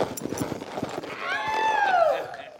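Horse hooves clip-clop in a quick, steady rhythm, then a loud, drawn-out whinny rises over them and trails off.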